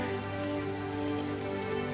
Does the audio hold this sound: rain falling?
yes